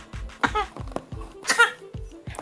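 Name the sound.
child coughing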